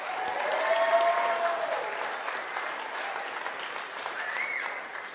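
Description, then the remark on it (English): A round of applause from a crowd for a summer intern: steady, dense clapping that holds at a fairly even loudness for several seconds before easing slightly toward the end, with no talking over it. “And then one other person I just have to give really a big round of applause to personally is”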